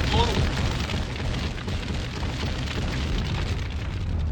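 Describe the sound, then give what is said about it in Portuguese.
A huge MOAB bomb blast rumbles on as a deep, sustained, loud roar, its low boom rolling steadily for several seconds without fading. “Agora solta Moab, Moab, fogo no muturo”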